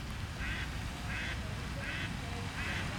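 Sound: ducks quacking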